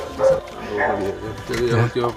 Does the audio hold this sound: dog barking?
yes